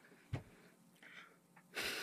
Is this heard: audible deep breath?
yes